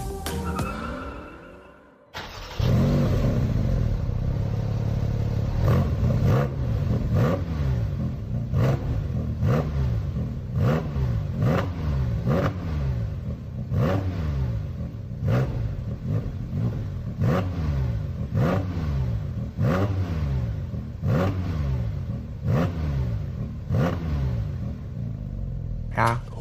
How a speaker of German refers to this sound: Ich würde schon fast sagen, die Profis erkennen wohl, dass es ein Porsche ist. Ja, wahrscheinlich schon. Ja, doch, ich glaube schon. Also so hoch dreht eigentlich sonst kaum noch ein Auto.